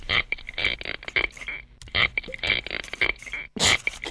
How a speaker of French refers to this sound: Ah, c'est le son de la langouste